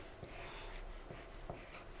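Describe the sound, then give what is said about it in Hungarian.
Quiet scratchy scribbling of a felt-tip pen moving across paper in short strokes as someone writes three surnames, with soft rubbing and faint taps, no voices present. “És mondj három vezetéknevet, vagy inkább tudod, mit fog meg a filc tollat. Jobb kézzel vedd, vedd le a kezed, leveheted addig, és Én ide írjál le három vezetéknevet, és legyen közt az igazi is.”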